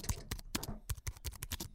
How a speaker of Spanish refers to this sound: un hacker es un carajo que está metido en un cuarto así oscuro con una laptop que le pega la luz así solo en la cara y él está tecleando así como si fuese un piano, ¿no? Que mientras más rápido teclee, más, más cabilla el hackeo, ¿no?